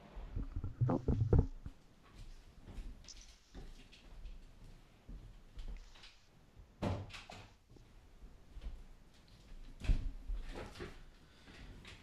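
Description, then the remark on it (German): A door is handled and shut, with a few separate thumps and clunks spread out over several seconds, with soft shuffling between them and no talking. “Warte mal, ich muss mal ganz kurz hier, ich muss ja ganz kurz hier meine Tür zumachen.”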